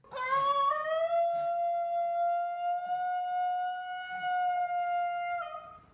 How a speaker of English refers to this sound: a Basenji yodel because this is you don't just tell somebody that a dog yodels